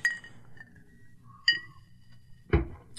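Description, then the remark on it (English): Glasses clink together in a toast to the Iron Sheik: a few bright, ringing chimes spaced about a second apart, followed by a sharper, louder knock of glass near the end. “All right we all need to raise a glass and toast to the loss of a legend, the Iron Sheik.”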